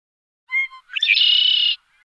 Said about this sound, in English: Birds, my sister shouts. We feed them the toast crumbs.